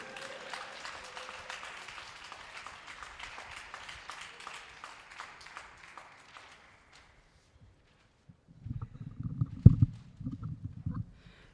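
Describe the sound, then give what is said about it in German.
A crowd applauds with steady, dense clapping while the next performer, number 5, comes onto the stage; the clapping gradually thins and fades out after several seconds. A short pause follows, then a few dull, low thumps and rumbles. “Applaus, bis er auf der Bühne ist.”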